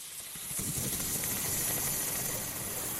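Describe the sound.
A person imitates a snake's hiss with one long, steady, breathy hiss that starts after a brief pause and holds for about two and a half seconds, fairly loud.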